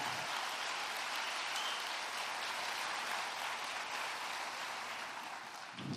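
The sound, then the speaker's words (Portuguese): An audience applauds the Lord for their church, clapping steadily for several seconds. It is a dense, crackling wash of many hands applauding at an even loudness with no voices standing out. “Você pode aplaudir ao Senhor por essa igreja, pelo que ele tem feito aqui?”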